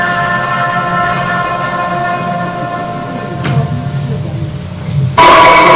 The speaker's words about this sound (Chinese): 好，你又听到了京剧的锣鼓了，对不对？这是一一些士兵啊，他们得胜回来的时候一个进行式。